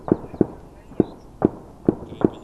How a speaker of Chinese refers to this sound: 就在这支部队出发没多久之后，马上传来激烈的枪炮声。